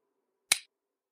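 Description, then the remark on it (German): A single crisp click from a mother's mobile phone one floor below, short and sharp with a quick decay, standing alone against near silence with only a faint low hum beneath. “Es ist das monotone Klicken ihres Handys.”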